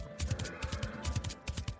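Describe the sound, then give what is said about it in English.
Horses gallop in a quick, steady three-beat rhythm, each stride a cluster of dull thuds with sharper clacks on top, fairly loud with no voices. “They got on their horses and they galloped to the far corners of the world.”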